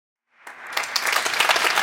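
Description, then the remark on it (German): A burst of spontaneous studio audience applause swells in quickly and holds steady as a dense, lively wash of many hands clapping, with no voices over it. “Ich gab hier spontan Applaus.”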